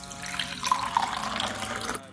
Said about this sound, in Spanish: vamos a poner el agua en el plato.